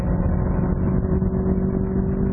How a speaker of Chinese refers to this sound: 好，起步。刚起那一下惯性还是有点大，但是一上了三千段以后就很有力了，而且发动机的声音是这三个车里头最响亮的、最洪亮的，应该说。